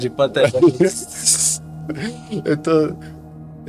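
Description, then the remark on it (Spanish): A voice imitates a snake's hiss, one short, sharp sibilant burst lasting about half a second, set between stretches of someone talking. “oye, escucho una serpiente”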